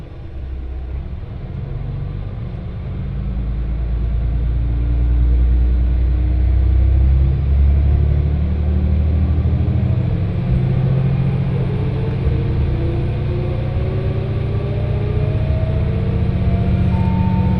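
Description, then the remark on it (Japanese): Riding inside a driver-only local train bound for Fukui as it picks up speed: a loud, steady low rumble of wheels on track, with a motor whine gradually rising in pitch. No one speaks. “この列車は福井行きワンマンカーです”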